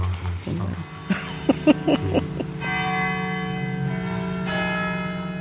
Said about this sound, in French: on, va, sûrement l'entendre parce que les, cloches le chantent aussi. Ah, le chantent aussi.